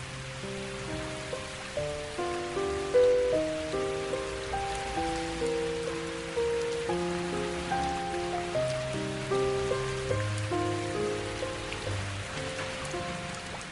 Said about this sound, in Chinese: 后来，就下雨了。